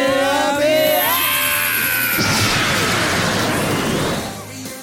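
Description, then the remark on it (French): A loud, wavering squeal of a car's tires screeching under braking for about two seconds, then an abrupt sharp gunshot followed by a rumbling, crackling wash of noise that slowly fades. “Une voiture qui surgit, un coup de frein, des pneus qui crient, un coup de feu qui retentit.”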